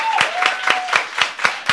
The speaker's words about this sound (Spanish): Así que eh, agradecemos a los hermanos de Church on the Rock. Un aplauso a ellos